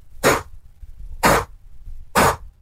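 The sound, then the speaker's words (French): Three sharp, forceful bursts of air blown through the nose, evenly spaced about a second apart, loud: a person imitating a deer's alarm snort, made when something is happening, with air forced from the nostrils under pressure like an air compressor. “ça veut dire que là, il est écœuré, il y a quelque chose qui se passe, ça fait un souffle du nez. On appelle ça se faire siffler.”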